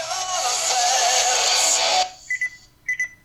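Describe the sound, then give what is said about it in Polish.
A Bluetooth speaker's maximum-volume indicator tone: two short, clear beeps spaced about half a second apart, following two seconds of loud, dense, distorted sound played at maximum volume that cuts off abruptly. “oznacza, to jest, że to jest koniec maksymalna głośność.”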